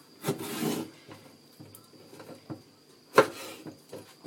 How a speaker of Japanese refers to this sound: ただナス切ってるだけですから、今ちょっと。しかも、私は、もう、あの、元を使うので、思いっきり、ああいうなんだっけクックドゥみたいのを使いますので今ナスを切っております